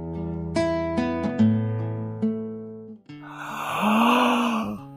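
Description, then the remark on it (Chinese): A man's voice imitates a long, breathy yawn that rises and falls in pitch for a couple of seconds, following a few sustained, gently plucked musical tones. The narrator is voicing a little bear cub yawning in a reading of the picture book 小熊宝宝 (Sleep) by Yoko Sasaki. “小熊打了一个哈欠。”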